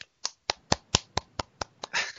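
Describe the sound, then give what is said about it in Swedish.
A short burst of applause from a single person: about nine sharp, evenly spaced hand claps in a quick steady rhythm, ending in a slightly longer, fuller clap. No voices are heard. “En applåd!”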